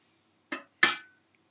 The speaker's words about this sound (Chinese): 那你稍微在搅拌的过程里面，你会发现茶叶已经开始释放了，颜色会比你刚开始加入这个水的时候更加浓郁，大部分的茶叶都沉在了。这个锅子的底部啊，这样的一个状况是比较乐见的。